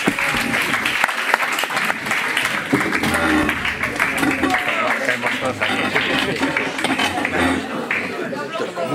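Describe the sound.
Sustained audience applause, a dense crackle of many hands clapping steadily and loudly throughout, with faint voices mixed in beneath.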